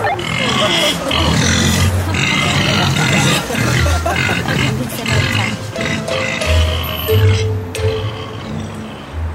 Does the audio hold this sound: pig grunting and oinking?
yes